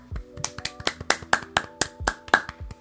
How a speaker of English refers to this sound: Okay. I trust that you clap. I did.